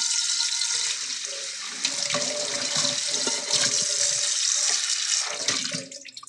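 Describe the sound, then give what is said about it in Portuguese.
A tap runs steadily as a frying pan is rinsed beneath it, the hiss of water shifting and splashing unevenly as the pan moves through the stream, then tapering off at the end. “E já tá basicamente enxaguado aqui.”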